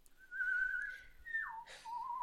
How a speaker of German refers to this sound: Was dir gefällig ist, sagte der Lakai und fing an zu pfeifen.